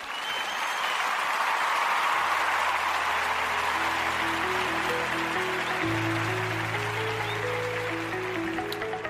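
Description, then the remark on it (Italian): A steady, dense applause sound effect fills the whole stretch at an even level, leading into the closing theme, while a low bass note and a simple stepping melody enter underneath partway through. “con questo direi in applausini e poi in eh, sigla finale.”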